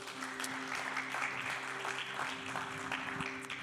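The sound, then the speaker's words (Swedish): An audience at a church service claps together for the worship band (vocals, bass, piano, drums) in a steady, dense wash of applause lasting a few seconds, with a low sustained tone humming underneath throughout. “Jag tycker vi ger dem en varm applåd.”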